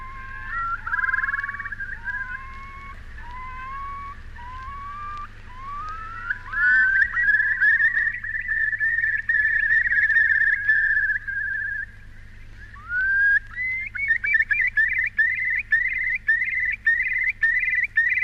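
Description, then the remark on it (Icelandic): A whimbrel calls with a series of clear, rising whistles that run into a long rippling trill, then a fast repeated whistling burst. It is fairly loud, with a low steady background hum. “Þetta var spói.”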